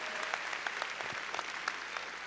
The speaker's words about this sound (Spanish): A ver, qué lindo, démosle palmas fuertes que estamos aquí en la barca ya del Señor.